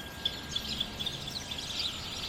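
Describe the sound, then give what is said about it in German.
A busy flock of sparrows in a ship's rigging chirps and twitters continuously, many overlapping high-pitched calls forming a noisy, chattering chorus. “Dabei lärmten und zwitscherten sie wie verrückt.”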